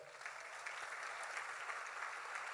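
A church audience claps steadily to applaud the Lord, a dense, continuous patter of many hands filling the whole moment at an even, fairly loud level, with no voices standing out.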